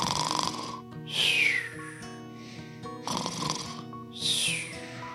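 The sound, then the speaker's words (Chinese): A voice imitates snoring: two slow, rhythmic snores, each a rasping, buzzing inhale followed by a high, whistling exhale that slides downward. Fairly loud, with no talking. “然后他躺了一会儿，开始假装在打鼾”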